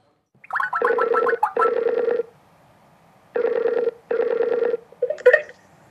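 An outgoing call rings on the line: a few quick dialing beeps, then two buzzy double rings with a pause between them, steady, before the line clicks as it's answered; a call placed right after a match.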